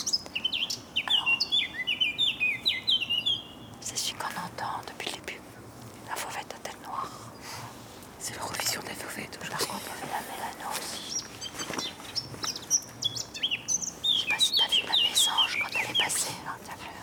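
A songbird calls repeatedly in quick, high chirping bursts, clustered near the start and again near the end, while people whisper softly.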